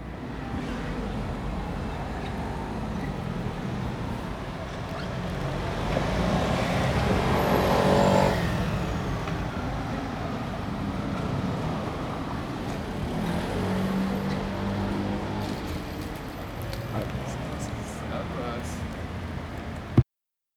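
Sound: city street traffic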